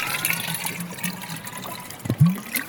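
Water pours into a Kelly kettle, brought along to an island, in a steady splashy rush with a couple of low gurgling knocks near the end. No one speaks.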